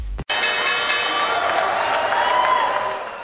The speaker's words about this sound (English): There you have the opening bell on Wall Street, and U.S. stocks are up and running on this last trading day of the week.